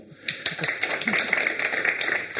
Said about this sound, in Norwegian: Jeg fikk en liten applaus ennå.